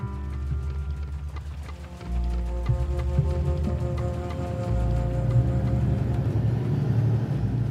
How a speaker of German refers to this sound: Von Tel Aviv aus fahre ich mit dem Bus Nummer 66 nach Petach Tikva, in einer Stadt vor den Toren der israelischen Metropole.